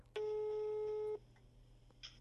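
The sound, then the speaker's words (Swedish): A single one-second ringback tone on an outgoing phone call made from a radio studio, a steady clear hum that cuts off into quiet line hiss, followed by a faint click. No one speaks. “Så inför idag så har jag ringt upp och frågat en person som har en mycket mycket bättre koppling till reality än jag.”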